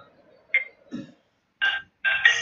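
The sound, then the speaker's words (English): A second phone's ringtone sounds in short, bright electronic bursts: two quick blips, then longer buzzy tones that grow louder toward the end. No one speaks. “I'm sorry, my other my phone's ringing.”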